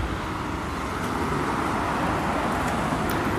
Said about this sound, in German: Ah, jetzt ist die Fähre wieder gekommen, wie man hört kommen ja doch eine Menge Autos hier angefahren.